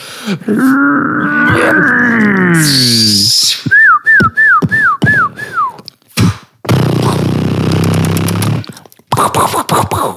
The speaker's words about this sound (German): Das war der Knallfrosch gerade. Das war der Frosch.